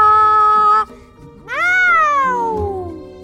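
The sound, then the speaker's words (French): A voice imitates the sound of a huge catfish as a cat meowing twice: a short, flat, steady meow, a brief pause, then a louder, longer one that rises and slowly slides downward, clear. “assise sur le dos d'un énorme poisson-chat qui fait”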